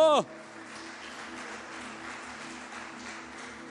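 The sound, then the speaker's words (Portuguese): A church crowd applauds the Lord, clapping steadily for several seconds, a dense even patter of many hands, after a brief loud burst at the start, with faint sustained tones and voices underneath. “E se você acredita nisso, comece a aplaudir ao Senhor bem alto.”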